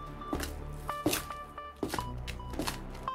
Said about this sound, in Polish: Odgłos kroków poniósł się echem po całej klatce schodowej, docierając również do moich drzwi. Żołnierze byli na parterze i zapukali do jednego z mieszkań.